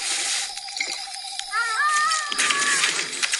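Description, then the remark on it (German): Coyotes howl in the distance in wavering, high-pitched tones that overlap and rise into yipping glides, set against a steady hissing background with no one talking. “Die Kojoten trauen sich ohnehin nicht in die Nähe des Feuers.”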